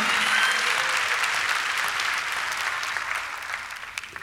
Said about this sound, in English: Come on, clap your hands and say, I'm going to encourage my brothers and sisters. Come on, clap your hands.